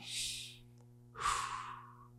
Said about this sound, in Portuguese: Ó que milagre, você está respirando, cara. Você tem vida.